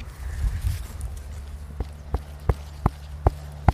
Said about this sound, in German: der Kürbis, äh, der Volksmund sagt, der Kürbis ist reif, wenn er hohl klingt. Wollen wir mal klopfen? Ja, klopfen wir mal.